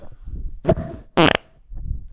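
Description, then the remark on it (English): Two loud farts in quick succession, the second longer and more raspy, blasting right into the microphone between stretches of low background rumble. “Oh yeah, fart into the microphone, classic.”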